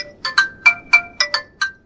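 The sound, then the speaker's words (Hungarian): A mobile phone ringtone plays alone during a recording, a quick electronic melody of bright tonal beeps in an irregular rhythm, fairly loud, with no voices. “ja, nem, tehát nem az a lényeg, hogy felvétel van, és abba belecsörög a telefon,”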